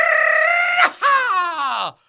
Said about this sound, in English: I think you know this is a perfect Friday to let go of that rebel yell, just get it going in Duval today.